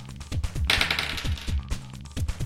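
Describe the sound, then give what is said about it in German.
Dice are rolled for damage in a tabletop role-playing game, clattering across a hard tabletop in a quick run of rattling clicks and knocks, fairly loud, with no voices. “Würfel doch bitte einmal Schaden?”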